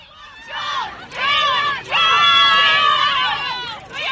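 A large crowd of fans in 1960 screams hysterically, shouting a name for a singer as the band appears, many high-pitched shrieks overlapping into a loud, continuous wall of sound that surges in waves, with a brief dip before swelling again.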